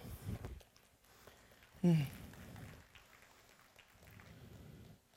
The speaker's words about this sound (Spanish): Dar un fuerte aplauso al Señor.